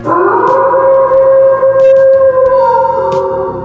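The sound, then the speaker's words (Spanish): A voice imitates a wolf howl, one long sustained wavering tone held steady for several seconds, loud and alone with no talking. “Me dicen el lobo.”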